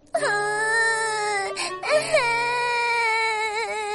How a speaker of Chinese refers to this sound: 咪咪伤心的哭了起来。